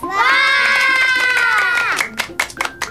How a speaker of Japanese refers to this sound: みんな元気な拍手をどうもありがとう